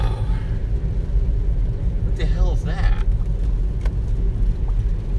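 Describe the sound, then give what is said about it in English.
A heavy semi truck engine rumbles low and steady throughout, as if idling, at a mall, with a voice briefly speaking over it partway through. “there's semi trucks over here at the mall.”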